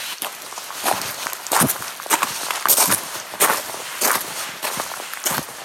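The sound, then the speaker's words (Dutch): Steady footsteps walk along at an even pace, each step a crisp scuff or crunch, with a continuous low background hiss and no voices. “Het zijn gewoon voetstappen.”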